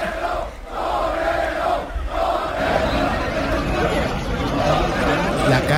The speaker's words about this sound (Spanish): ayer en la corrida de farolillos de la Feria de Abril cortó oreja y rabo a ligerito, el toro de la ganadería Domingo Hernández, los aficionados lo sacaron por la puerta del príncipe al grito de torero, torero, por la calle.